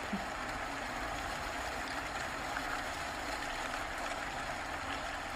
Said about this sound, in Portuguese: Uma chuva cai do céu. A água começa a cair por todo o seu corpo.